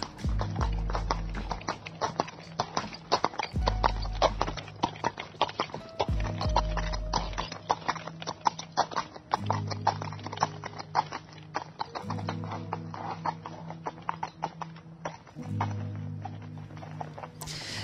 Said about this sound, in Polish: Jeżeli będziemy spacerować, no to będziemy często spacerować brukowanymi uliczkami, które są po prostu świetne. Jeszcze ten odgłos końskich kopyt latem, które y, tam rozbrzmiewają po tych uliczkach.